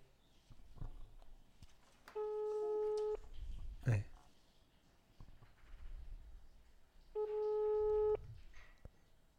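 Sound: phone call ringing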